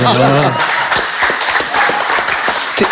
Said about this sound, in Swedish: Det är nästan värt en liten applåd tycker jag.